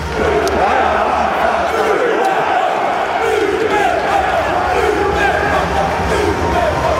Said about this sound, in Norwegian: Brannlaget som nå gikk ut på stadion, måtte stå ansikt til ansikt med forbanna supportere, som ropte 'ut med pakket'.